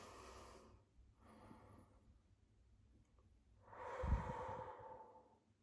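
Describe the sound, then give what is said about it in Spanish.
A breathy deep breath: a couple of softer airy intakes, then a long, louder exhale with a rough rush of air that fades out. No talking. “Toma una respiración profunda.”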